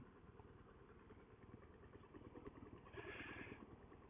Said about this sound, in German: Das ist ja praktisch mein Reisealltag. Was ich dann immer mache, Motorrad abstellen.